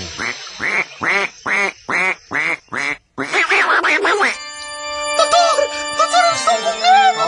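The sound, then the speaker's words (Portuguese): A duck sound effect quacks about eight times in a quick, even rhythm, loud. A denser burst of quacking follows, then bright ringing electronic tones take over. “Sua mãe, mamãe Benedita Jackson, entra em trabalho final de pato.”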